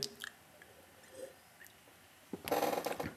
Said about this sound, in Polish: Pozwólcie, że zrobię łyk wody.